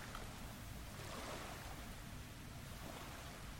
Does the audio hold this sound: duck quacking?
no